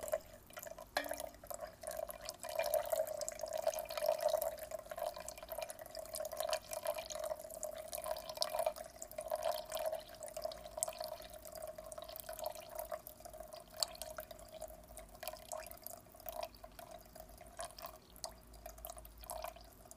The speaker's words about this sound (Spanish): Ya virtió todo el agua y ahora la tetera la va a poner a un lado del lado derecho.